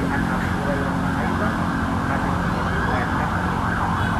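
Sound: ambulance siren passing outside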